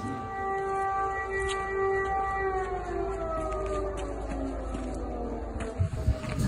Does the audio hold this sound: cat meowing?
no